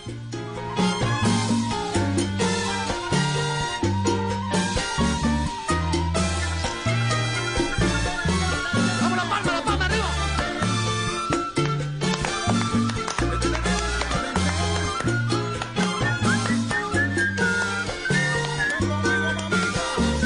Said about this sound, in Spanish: es una cosa linda, porque combina esta música escocesa con el son cubano, con la música cubana. Aquí está, a cada rato están ellos viajando a Cuba a, a empaparse, a untarse de esto.